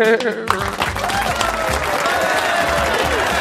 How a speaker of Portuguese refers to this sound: Uma salva de palmas para rodada de tretas. Aê.